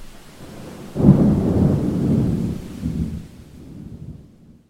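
A wind and rain storm in Ireland swells in suddenly after a quiet second, a loud, deep rumbling roar with rushing rain that rolls on for a few seconds before fading away.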